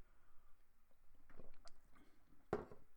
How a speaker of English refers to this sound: Sorry, I'm sipping some tea.